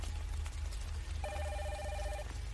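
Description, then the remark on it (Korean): An intercom at a military guard post rings with a single steady electronic tone lasting about a second, heard clearly over a low background hum, with no voices. “초소로 돌아와서야 우린 인터폰이 요란하게 울리고 있음을 알게 되었다.”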